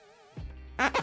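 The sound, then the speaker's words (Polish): A high squeak like a cloth rubbing on glass, then a dull knock and two quick, loud rushing swipes as a window is being washed. “To jest odgłos mycia okien.”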